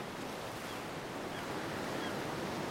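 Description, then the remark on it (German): Steady, continuous surf of Baltic Sea waves washing onto a beach, a broad hissing rush that fills the whole stretch without pause, moderately loud with a faint breath of wind and no voices. “steht am Strand gleich unterhalb von Veits Lieblingsplatz. Sie blickt auf die Ostsee, denkt nach.”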